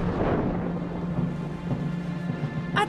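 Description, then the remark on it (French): A raging storm with wind, rain and lightning around a ship: steady rain and gusting wind fill the scene, with deep rolling thunder rumbling loudly underneath throughout, no voices. “Et dehors, la tempête faisait rage. Il y a du vent, de la pluie et des éclairs.”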